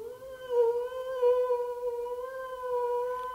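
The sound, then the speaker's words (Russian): A hungry wolf howls again in one long, sustained, mournful note that wavers slightly in pitch, fairly loud and close, with no other sounds around it. “И прежде чем я мог оправиться, он завыл снова.”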